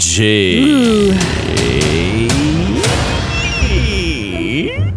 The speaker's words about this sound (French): Ça, c'était le son de la porte.